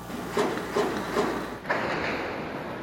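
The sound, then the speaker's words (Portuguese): Four sharp gunshots crack out in quick, fairly even succession in the early hours before dawn at Ladeira dos Tabajaras, Copacabana, Rio de Janeiro, Brazil, over a steady low background hum, with no voices. “O silêncio da madrugada foi interrompido pelo som dos tiros.”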